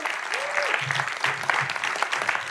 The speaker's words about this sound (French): Alors pour ce premier épisode de la nouvelle saison de Dans le ventre, j'ai décidé d'inviter … à venir manger avec moi sur scène. Donc des applaudissements pour Ben et Jocelyn, le chanteur et le batteur du groupe ….